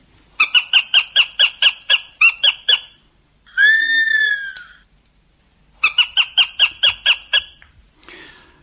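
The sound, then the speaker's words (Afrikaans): A black sparrowhawk calls: a rapid series of sharp, repeated cackling notes, a drawn-out rising squeal, then another quick burst of cackles, loud with no other sounds. “Maar die ergste, die allerergste voel wat jy in jou tuin kan hê, is uiteraard die swart sperwer.”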